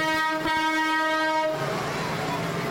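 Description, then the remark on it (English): A big tractor in a street parade passes by, sounding a loud, sustained horn blast for over a second before giving way to a broad, rumbling roar of engine and crowd noise. “Another big tractor coming here, and it's Brian Mull.”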